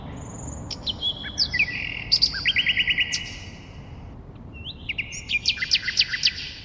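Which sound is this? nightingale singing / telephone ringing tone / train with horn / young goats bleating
nightingale singing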